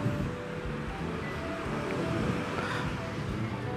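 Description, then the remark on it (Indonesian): Steady, loud roadside traffic rumble as a truck and many motorcycles pass by, engine drone and hum in a continuous wash of vehicle noise with a faint murmur of voices underneath. “nah ini ada truk mampir eh lewat sih nggak nggak nggak jadi mampir banyak motor”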